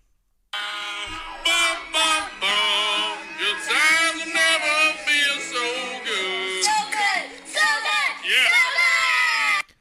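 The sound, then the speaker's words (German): A few children riding on the back of a golf cart loudly sing a football fight song together, their high voices strained, half-shouting the tune in a steady stream of phrases for nearly ten seconds. “Was ihr da hört, sind die Kinder von Adam Thielen”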